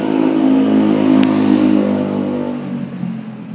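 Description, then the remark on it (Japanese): A car engine revs loudly outside, a dense, continuous rumbling drone that holds steady for a few seconds before easing slightly, with no voices. “まだ落ち着きのあるうるささだから、うん、あのエンジン音はまだいい”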